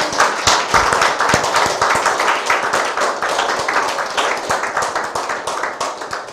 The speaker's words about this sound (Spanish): Fuerte aplauso al Santo bendito sea por esta bendita.